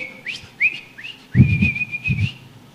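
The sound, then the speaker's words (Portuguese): A person whistles a series of short rising notes followed by a longer sustained tone, with low thumping sounds underneath partway through. “Eu conheci uma igreja que o povo recebia dom de assobiar, para tu ter ideia do negócio, não é?”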